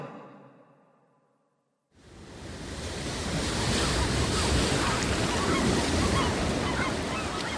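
Waves crash against rocks where black birds have gathered, seen from a rowed boat, in a loud, continuous roar of surf that rises abruptly after a short fade into near silence, then churns steadily without any voices.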